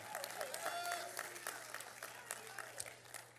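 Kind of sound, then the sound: crowd, audience clapping hands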